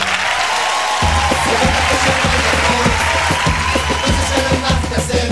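A steady burst of loud clapping fills the whole five seconds, dense and crackling, with a low musical drone running underneath from the first second on.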